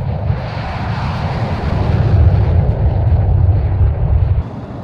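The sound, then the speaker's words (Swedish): A fighter jet engine starts up on an airfield, a loud, steady rumbling whine that swells slightly before easing off near the end, with no voices. “Det är för att se till att den här maskinen startar, står på linjen varje dag och startar.”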